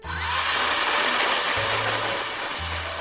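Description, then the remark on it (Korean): A cafe blender roars steadily and loudly, grinding mango, blueberry and strawberry-banana smoothies with a harsh whir, the motor's low hum dropping out and returning as the load shifts. “그때는 카페에서 제일 바쁜 한시였고 카페 믹서도 하나밖에 없었지만 저의 소중한 친구들을 위해 열심히 갈았습니다.”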